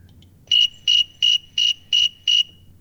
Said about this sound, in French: Il a même nommé grillon thermomètre. C'est pas moi qui l'ai nommé comme ça. il, est nommé comme ça par le sens commun. Et on peut entendre euh, ce qu'il produit à 24 degrés 8. C'est un, grillon euh, qu'on en trouve notamment en Amérique du Nord.